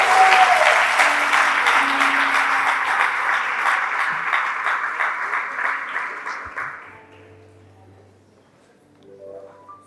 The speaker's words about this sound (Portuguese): Se você pode, dê uma salva de palmas ao Senhor e sente glorificando a Ele.